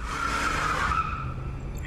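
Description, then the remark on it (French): A car swerves hard to the side on a long, poorly lit, monotonous road, tires skidding loudly, a sustained screech over engine rumble that fades out after about a second, with no voices. “À ce moment, sa voiture fait une grosse embardée sur le côté.”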